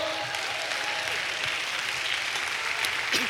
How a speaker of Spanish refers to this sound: Dale un aplauso a Dios.